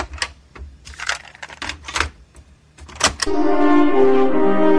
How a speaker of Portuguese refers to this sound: Técnica Roda Vinhetinha, tá na hora do nosso papo com o mestre Gil Gomes.